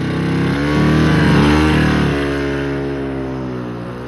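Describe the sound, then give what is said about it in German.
An old used car's engine idles with a rough, steady drone, rising briefly in pitch as if revved around the middle before settling back to a lower rumble. No one speaks. “Die haben mir eine Schrottkarre angedreht.”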